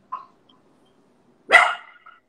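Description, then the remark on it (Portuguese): A dog barks once loudly, preceded by a faint short yip, with quiet stillness between the two sounds and no talking. “Adorei o nome do seu cachorro.”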